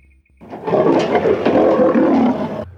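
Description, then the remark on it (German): A lion lets out a loud roar lasting a couple of seconds, rough and rumbling with a sustained growling texture, then it cuts off abruptly. No one speaks. “Löwen im Käfig verhalten sich nicht so wie in freier Wildbahn.”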